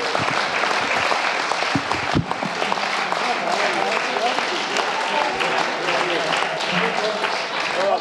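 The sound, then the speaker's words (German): A live audience in Stuttgart applauds steadily to welcome the hosts of the Wasser Talk live talk onto the Jesus Treff couch, a dense wash of clapping that stays loud and continuous for several seconds, with faint voices and cheers mixed into the crowd noise. “Begrüßt direkt mit einem dicken Applaus”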